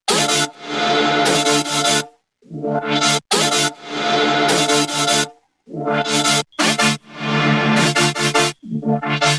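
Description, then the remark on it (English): A loud, bright, buzzy synth layer from a bass drop plays alone in choppy rhythmic bursts, sustained phrases broken by short gaps and quick stutters, rich in gritty harmonics. “There's like a higher layer and then a lower one. Let's see right now. I'm gonna play the higher one right now.”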